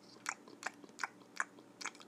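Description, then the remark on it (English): Munching on candy corn: five crisp crunchy bites in a steady, evenly spaced rhythm, fairly quiet, with no talking. “As soon as you arrive at a clearing, two ET like aliens wearing mustaches appear, munching on candy corn.”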